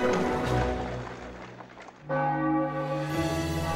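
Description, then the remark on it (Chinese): Festive palace bells ringing out for a royal wedding in a full, resonant peal, a first strike decaying with humming overtones before a second loud stroke around two seconds in rings on steadily; no voices. “很快，王宫里喜庆的钟声响彻云天。”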